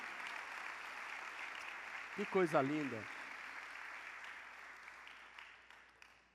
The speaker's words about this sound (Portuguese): Lá na galeria, olha, aplauda os irmãos lá na galeria.